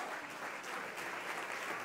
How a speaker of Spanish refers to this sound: Si ¿Sí le va a dar el aplauso.